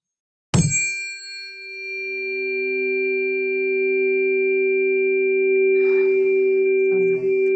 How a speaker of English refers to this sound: And then we hit it together. And these create a mathematical relationship of two to three, which you can't get on a piano or anything like that. And just listen to how pure this is.